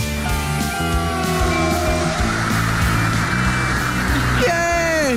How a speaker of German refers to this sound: So klingt das, wenn man einen Proberaum am Bahnhof hat.